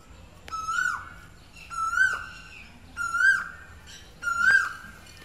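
An Asian koel calls four times in a steady, evenly spaced series, each clear rising whistled note ringing out loud, with a faint background hum, heard in a home courtyard with a mango tree.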